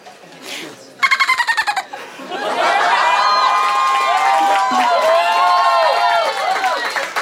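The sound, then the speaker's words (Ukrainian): A human voice mimics a dolphin: a quick burst of rapid clicking chatter, then a long run of high, looping squeaky whistles rising and falling, fairly loud. “Я ну, я не вмію жартувати, але я вмію робити звук дельфіна.”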